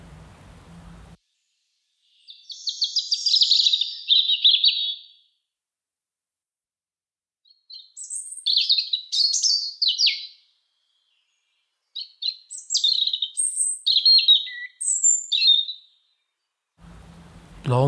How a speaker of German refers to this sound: Rotkehlchen.